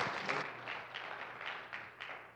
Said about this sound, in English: Yeah, you can clap. It's awesome.